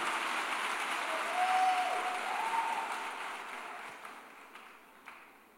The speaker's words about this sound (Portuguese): Toda vez que você bate palma, é bom que eu consigo beber água. Bate só mais um pouquinho, minha gente. Porque se vocês não baterem, vocês vão ouvir eu bebendo assim um gole de água.